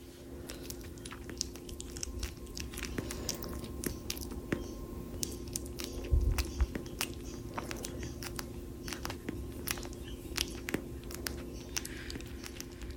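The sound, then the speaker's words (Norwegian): A young child chewing banana after biting off too large a piece and struggling to swallow it, with soft wet smacking and squelching mouth sounds repeating irregularly over low background hum, no talking. “når vesle … tygger banan, så liker jeg det”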